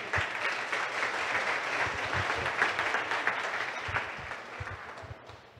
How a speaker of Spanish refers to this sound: Un aplauso para David también.